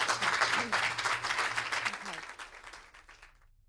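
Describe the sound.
A round of applause from an audience for a speaker at the end of a conference discussion, dense and steady clapping that stays loud for a couple of seconds, then thins out and fades away, with a faint voice briefly beneath it.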